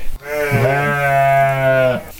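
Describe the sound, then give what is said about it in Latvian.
A single long, drawn-out sheep bleat, loud, holding a steady wavering tone for about two seconds before cutting off, with no talking over it. “Tāds sajūta, ka kāds mēdās, vai ne?”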